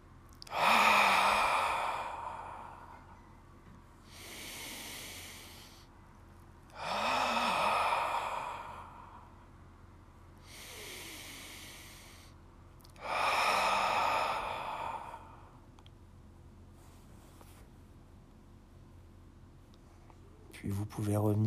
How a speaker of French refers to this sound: on prend d'abord une profonde inspiration, on contracte les muscles du périnée. En soufflant, on relâche le périnée, on rentre le nombril, on se grandit et on éloigne les épaules des oreilles.